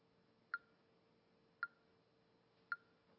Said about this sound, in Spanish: Y uno puede practicar, yo lo he dicho muchas veces, puede practicar en casa con un metrónomo que uno descarga gratis en los teléfonos y te van llevando. Yo uso este que se llama Tempo y suena así.